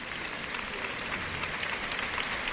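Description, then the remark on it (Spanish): A sustained ovation from a bullring crowd for matador Marcos Linares after the bull of his alternativa, dense steady applause filling the whole clip with an even, rushing texture and no pauses. “Ahora saluda la fuerte ovación del público Marcos Linares”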